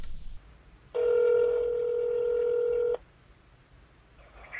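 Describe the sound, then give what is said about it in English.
A single steady telephone tone sounds for about two seconds, loud, standing alone against a quiet background hiss with no voices, as a caller phones a urology clinic. “I just think I might actually give a call to a, a, urology clinic to see what they'll say if I ring them, you know, to find out information, to see if any of them will answer.”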